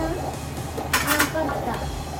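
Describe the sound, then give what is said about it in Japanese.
A short burst of plastic clicking and scraping as a rubber gasket is pressed into a lunch box lid, lasting under half a second over a quiet background with faint voices. “パッキンパッキンがあるから弁当箱の蓋なんだけどパッキンがあるからここにこうやってさ入れてくれる”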